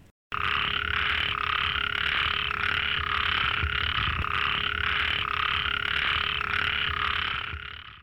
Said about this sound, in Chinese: 听完小小的小雨蛙的叫声之后